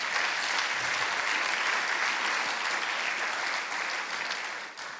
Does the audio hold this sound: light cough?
no